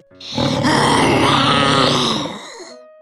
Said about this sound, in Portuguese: Cuidado com o tigre! Tarde demais. O tigre rosna, abafado de dentro do micro-ondas.